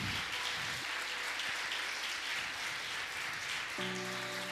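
A church audience claps steadily for several seconds as applause to the Lord, a dense crackling wash of applause at a fairly even level, with a low sustained hum and tonal notes entering near the end.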